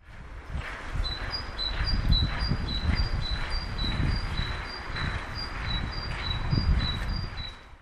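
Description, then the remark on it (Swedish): A great tit, sitting up in the Christmas lights just outside the Norrtelje Tidning newsroom, sings a steady, repeated two-note phrase, bright and high-pitched, over a low rumble of outdoor background noise that continues throughout. “Jo, vi hör en talgoxe som faktiskt sitter uppe i julbelysningen precis utanför eh, Norrtelje Tidnings redaktion och sjunger så fint.”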